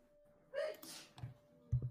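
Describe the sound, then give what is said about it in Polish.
A single quick sneeze, a short voiced intake snapping into a burst of breathy noise, fairly soft, followed by a couple of faint low knocks. “O proszę. Na zdrowie.”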